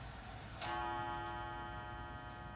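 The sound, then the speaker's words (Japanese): A single bright chime from a Taishō-era pendulum clock wound with a key, kept in a shop, strikes one o'clock and rings out with a long, slowly fading metallic tone over a low background hum. “あ1時になったあのお店にね大正時代からの時計があるんですよ振り子時計ネジで回すやつ今それが鳴りました”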